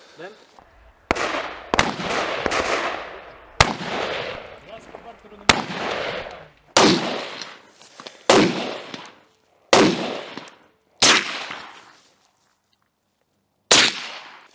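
A series of about ten sharp, loud gunshots fired at irregular intervals, each crack followed by a short echoing tail, with a brief quiet pause before the final shot.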